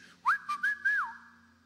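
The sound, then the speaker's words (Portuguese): A person whistles a short, steady high tone with a few quick pulses and a slight rise and fall, imitating a whistling he heard in his ear while preaching at a conference, heard alone. “Se fosse o meu assobio, seria assim.”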